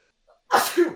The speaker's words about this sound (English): I'll sneeze all day just for a chance.